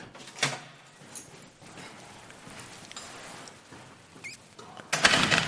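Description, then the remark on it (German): The door of a rented lodging under the roof slides and thuds shut as the lodging is left, followed by light rattling and the small metallic clicks of a key turning in the lock, ending in a louder clatter. No one speaks. “So, die Gastgeberin hat mich gebeten, hier immer abzuschließen.”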